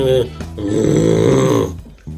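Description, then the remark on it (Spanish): A person imitates a bull's bellow with a loud, drawn-out, guttural low groan lasting about a second and a half, after a brief vocal burst. “eso es un toro, cabrón.”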